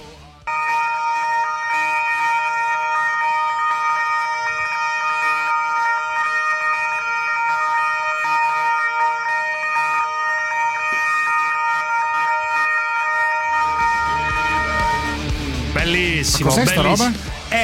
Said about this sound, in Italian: suonano le sirene dei poliziotti davanti alla caserma, al comando generale dell'arma dei carabinieri.